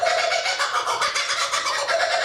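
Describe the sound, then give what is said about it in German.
A kookaburra, a bird of the kingfisher family, gives its laughing call, loud: a continuous run of rapid, cackling hoots with a steady pulsing rhythm, like hysterical human laughter, and no voices. “Und tatsächlich, es klingt wirklich wie so ein hysterisches menschliches Lachen, ja.”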